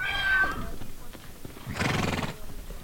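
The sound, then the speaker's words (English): Wild horses, rounded up that day during a drought in the American West, neigh and whinny at a corral, some mares gaunt with ribs and hip bones showing: a high tonal call early on followed by a louder, rougher whinny near the middle, with faint shuffling and hoof sounds in between. “At a nearby corral, some of the mares look gaunt.”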